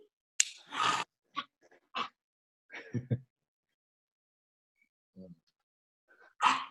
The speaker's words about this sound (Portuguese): Ó, chegou um, um cachorrinho aqui. Vem cá.